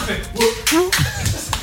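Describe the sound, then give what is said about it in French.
A person imitates a seal with a few short, loud, honking bark-like vocal calls in quick succession, mixed with breathy bursts. “C'était un phoque.”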